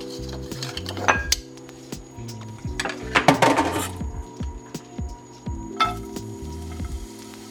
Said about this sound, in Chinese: 那我现在让它油锅呢已经热了之后呢，我们就可以来下洋葱下去做拌炒。好，下下下。